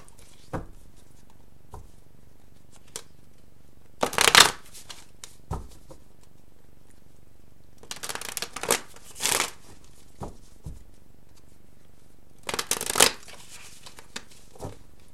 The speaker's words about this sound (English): cards feel very heavy in my hand, which means I need to really shuffle them some more.